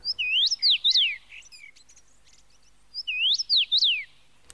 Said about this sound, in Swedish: Och vad är det vi hör då på vår utflykt? Då hör vi på vår utflykt en eh, väldigt trevlig och artig fågel som sjunger Please to meet you